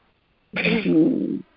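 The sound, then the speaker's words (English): A single abrupt sneeze, a sharp hissing burst that trails into a brief voiced, throaty tail before cutting off into quiet. “Bless you”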